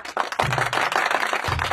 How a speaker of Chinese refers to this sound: 此处真的应该有掌声。